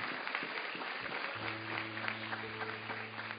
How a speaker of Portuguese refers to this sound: Aplaude a Deus pela vida de Gideão, aplaude. Aplaude mesmo.